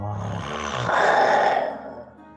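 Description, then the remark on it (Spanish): A voice imitates King Kulga growling at Magnus: one sustained, rough guttural snarl that starts low and rumbling, swells louder and harsher in the middle, then fades out, with no words spoken. “El rey Kulga voltea a ver a Magnus y le gruñe.”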